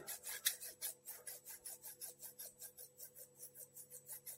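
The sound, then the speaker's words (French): Scissors snipping near the ear to imitate a haircut, in a steady, rapid rhythm, about five crisp, rasping cuts per second, bright and hissy, over a faint low hum and with no talking. “C'est ciseaux, tu vois, c'est un peu pareil. Je peux te faire croire que tu es en train de te faire coiffer.”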